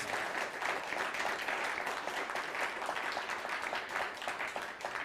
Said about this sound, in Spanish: Pues un fuerte aplauso nuevamente a la cuenta de tres. Uno, dos, tres.